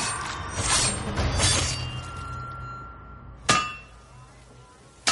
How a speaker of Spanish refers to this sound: En Esparta, el herrero trabaja sobre el yunque, forja a golpe de martillo una punza de lanza al rojo vivo.